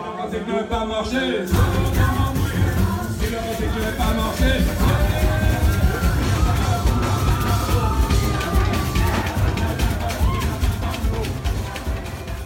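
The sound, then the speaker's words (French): A lively crowd at a Caribbean Chanté Noël Christmas carol gathering sings and shouts together over pounding festive music, loud and continuous after a short quieter opening, with cheers and voices blending into a joyful holiday carol celebration. “Ce que vous venez d'entendre, c'est le son du Chanté Noël où je n'irai pas”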